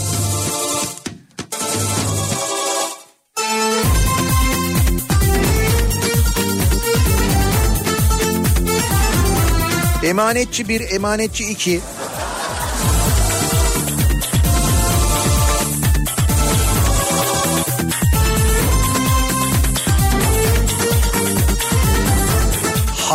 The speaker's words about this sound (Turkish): Madem bir taraftan da böyle 90'lar çalıyoruz. O zaman doğal olarak bu şarkıyı da çalmamız gerekiyor değil mi?